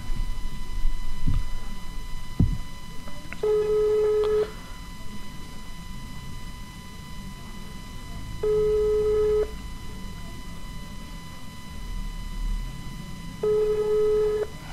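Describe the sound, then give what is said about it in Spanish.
A phone line rings back three times, each one-second tone spaced about five seconds apart, heard over a speakerphone with a low, steady hum underneath and nobody picking up; the call on the Movistar network then goes to voicemail. “por ahora no hay nadie que atienda el teléfono.”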